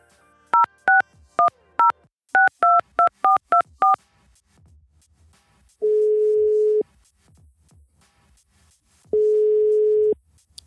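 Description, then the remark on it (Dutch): A quick run of about ten touch-tone keypad beeps as a phone number is dialed to call a business owner of Koning Willem, then two long, steady ringback tones separated by a pause. The sound is clear, with no voices. “Ik ga even met hem bellen.”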